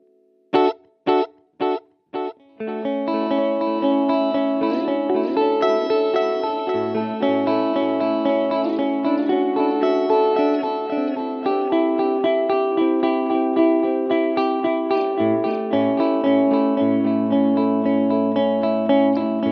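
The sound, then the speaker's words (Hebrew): An electric guitar with a digital delay effect: four sharp, evenly spaced plucks open, then a dense, sustained passage of bright, repeating notes rings out steadily with no one talking. “בטח, יאללה, בואו ניתן דוגמה לדיגיטלי.”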